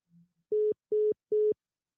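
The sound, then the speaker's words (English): A telephone disconnect tone after the caller hangs up: three loud, steady mid-pitched beeps, evenly spaced about half a second apart, following a faint brief hum. No voices are present. “The caller has hung up.”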